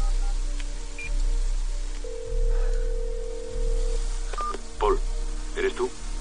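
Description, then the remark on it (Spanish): A phone number is dialed on a keypad: a string of short electronic beeps, one held longer, followed by a few quick higher tones, over a low steady background hum. “Marca un número y espera contestación.”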